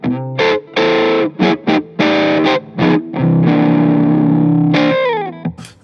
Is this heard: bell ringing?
no